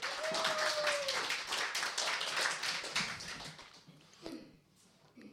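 A burst of audience applause welcoming a performer, dense rapid clapping from a small crowd, loud at first then thinning out and fading over the last couple of seconds, with a brief whistle-like tone early on.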